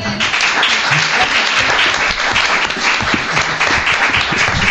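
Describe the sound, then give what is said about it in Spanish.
Loud, sustained applause from the show's large audience for a participant who won the point, a dense wash of many hands clapping at once that holds steady throughout without pause. “Y tú te llevas este fuerte aplauso de nuestro público.”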